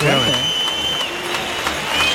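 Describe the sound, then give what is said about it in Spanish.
A large bullring crowd claps while loud, sustained high-pitched whistles cut through the noise, a divided reaction as the first bull of the afternoon is dragged out. A voice briefly talks over the start of the clamor. “Palmas y pitos, fuerte división de opiniones diría yo para este medallista que ha abierto la tarde”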